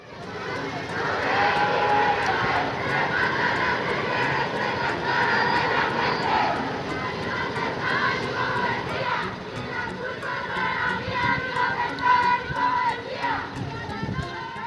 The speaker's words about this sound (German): Der 8. März, der internationale feministische Kampftag, bringt immer mehr Demonstrierende auf die Straßen. Hier hören wir einige Impressionen von der diesjährigen Demonstration in Mexiko-Stadt.